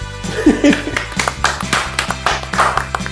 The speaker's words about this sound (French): voilà, je m'applaudis aussi.